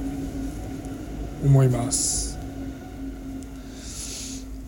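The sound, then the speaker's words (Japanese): A train rumbles past with a steady low drone, a rising and falling motor whine and bursts of airy hiss, while someone speaks over the noise. “電車うるさいですね すいません”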